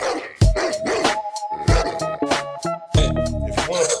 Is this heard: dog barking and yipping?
yes